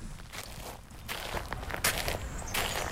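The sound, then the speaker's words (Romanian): Footsteps land in a steady walking rhythm, moderately loud, each step a soft scuffing crunch over a low background rumble, with no voices. “Ăștia sunt niște pași.”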